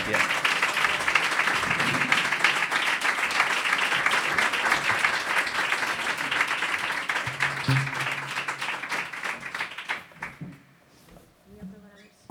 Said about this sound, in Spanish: pues venga, os acompañamos con este aplauso hasta vuestro lugar en el escenario.